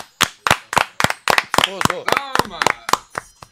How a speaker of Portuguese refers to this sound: Uma salva de palmas